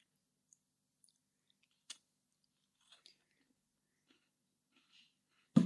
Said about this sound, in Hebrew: מה את מנשנשת? מה זה?